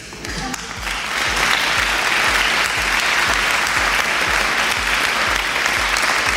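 A crowd bursts into steady applause for a student who scored over nine on the EBAU university entrance exam, many hands clapping in a dense, loud wash that swells after the first second and holds evenly throughout, with low rhythmic thumps underneath.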